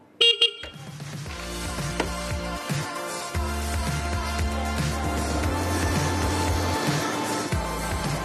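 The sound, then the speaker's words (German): A single short, loud electric horn beep from a speed pedelec (S-Pedelec) electric bike, whose motor accelerates up to 45 km/h, sounds at the start, then gives way to steady background music with a droning bass line. “Deshalb gibt es auch eine Hupe.”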